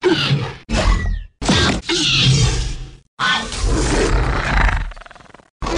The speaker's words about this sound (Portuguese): Então, é, eu lembro que, se não me engano, nos Raptors tem som de golfinho junto com uhum. leopardo, várias coisas assim.